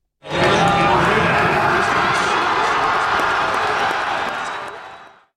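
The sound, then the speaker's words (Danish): A large crowd of fans in front of a big screen erupts in loud, sustained cheering and shouting as the referee blows the final whistle on Denmark's 2-1 win over the Czech Republic, a dense roar of many voices with scattered whistles and claps that holds steady for several seconds before tapering slightly. “Og glæden, den var heller ikke til at undslippe foran storskærmen, da dommeren han så fløjtede kampen af.”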